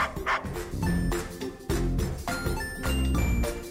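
A dog barks repeatedly in short, loud bursts spaced about half a second apart, over a bright musical backing with chiming tones, and no one speaks.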